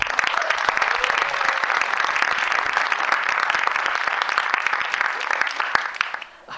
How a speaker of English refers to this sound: I think we'll have a big round of applause then, please